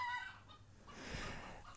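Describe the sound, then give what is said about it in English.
Chickens clucking and squawking outside, a busy flurry of short, harsh calls with a brief high tonal note at the start, noisy and fairly loud throughout. “I have to deal with this chicken nonsense.”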